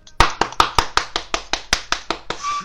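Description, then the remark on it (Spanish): A short burst of applause in honor of the anniversary of Gustavo Cerati's death: roughly a dozen sharp, loud hand claps in a quick, steady rhythm, with no talking over them. “Pero ¿por qué aplausos, cabrón?”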